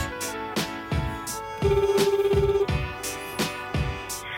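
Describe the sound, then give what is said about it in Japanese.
A phone line rings back with one warbling, buzzing tone lasting about a second, heard over steady rhythmic background music with punchy beats, as a call is placed to a guest during a radio show; no one speaks. “えー、今回は大橋ゆかりさんに電話していきたいと思います。”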